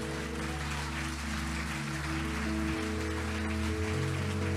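An audience claps steadily to applaud the Lord during a church service, a dense crackling wash of applause over sustained keyboard chords holding low notes. The clapping stays fairly loud and even for the whole stretch, with no voices heard.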